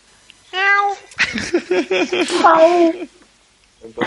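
A kitten meows several times in quick succession, a short cry followed by a longer run of high, wavering mews, fairly loud, with no talking over it.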